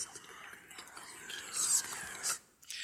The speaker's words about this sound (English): Just whispers. This is about ten tracks. Of, you know, we're they're saying things, but they're all whispers.